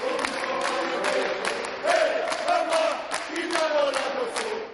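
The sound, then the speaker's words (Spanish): A crowd of inmates in a prison dining hall claps steadily while singing together for Pope Francis, sustained chanted voices rising and falling over dense, continuous applause at a fairly loud, even level throughout. “En el comedor agradeció a los presos que le acompañarán durante la comida y ellos respondieron con otro aplauso y cantos.”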